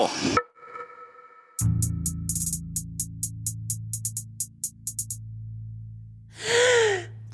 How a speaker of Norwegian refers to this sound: Hold pusten, jenter. Eller nei, vi slipper opp.